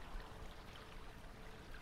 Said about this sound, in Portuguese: E do lado direito tu vê que tem, assim, um um pouco de água corrente assim no chão. Parece ser um rio subterrâneo que passa por aí.